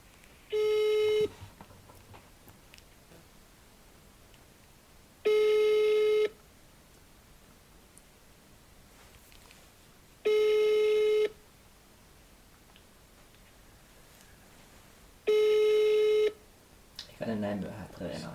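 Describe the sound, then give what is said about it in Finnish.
Four steady, buzzy telephone ringing tones, each lasting about a second and spaced roughly five seconds apart with quiet gaps between, before a voice begins speaking at the very end. “Kai soitit tuntemattomasta”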